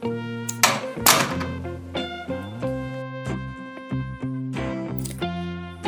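A wardrobe door thuds shut with a couple of dull knocks near the start, set against steady, sustained tonal music that carries on throughout.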